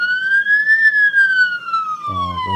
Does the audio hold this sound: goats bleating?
no